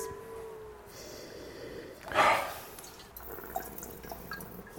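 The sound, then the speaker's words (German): Riesling wine (Weingut Johanneshof Eser, Rheingau, Rüdesheimer Berg Rottland 2005, Großes Gewächs) pours briefly into a glass, a short gurgling splash lasting about half a second in the middle, set against a low steady background hiss with a few faint clinks afterward. “Ich habe mir einen Cowboy-Schluck eingeschenkt.”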